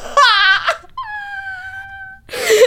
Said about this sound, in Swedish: Jag gråter nu.